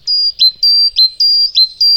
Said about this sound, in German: In Spanien und Italien, äh, da kommen die nächsten beiden her. Da ist es schon ein bisschen lebendiger. Und auch variationsreicher. Da wird mehr geplaudert offenbar unter den Meisen.